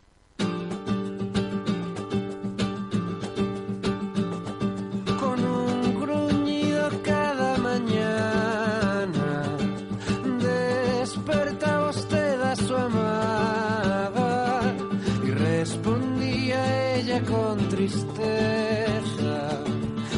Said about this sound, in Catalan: ha arribat el moment de parlar de l'àlbum de la setmana que sona d'aquesta manera.